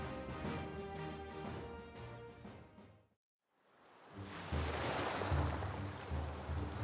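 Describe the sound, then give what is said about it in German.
Soft, steady wash of gentle ocean waves on the open sea under bright sun, with a low rumble and airy hiss, briefly dropping to near silence before the surf swells back in, fuller. “Hell scheint die gleißende Sonne herab auf das offene Meer, auf dem die Antigua ruhig im Takt des leichten Wellengangs hin und her schaukelt.”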